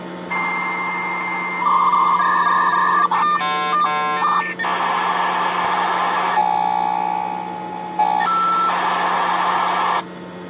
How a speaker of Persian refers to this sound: وصل می‌شدیم به شبکه‌ای مثل ماورا و اینا از طریق مودم با خط تلفن یه صدای جیرجیری میکرد این شکلی بود